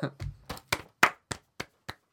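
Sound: hand clapping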